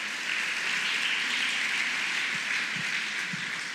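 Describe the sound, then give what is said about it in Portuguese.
A crowd applauds the name of the Lord steadily, a dense wash of many hands clapping at once that holds at an even, fairly loud level throughout, with no voices rising above it. “aplaudo o nome do Senhor.”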